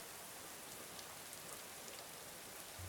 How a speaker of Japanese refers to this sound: 雨が止む気配はないバクとした雨の降りっぷりは身を隠すに好都合だ